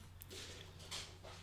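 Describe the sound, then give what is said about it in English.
A female dog's soft footsteps patter as she walks into a studio after being called by name, a few faint, irregular taps over a steady low hum, quiet with no one talking. “Here she comes walking into the studio.”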